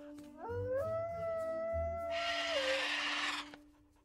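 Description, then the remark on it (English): A single drawn-out dog howl rises in pitch, holds steady for a couple of seconds, then drops away, with a burst of hissing noise over its final stretch before it fades. “And here's howling.”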